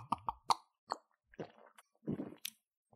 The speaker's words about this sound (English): Now, eh, how much am I chugging this? Like, it, just enough to not drown myself, or you got two of these okay. bad boys.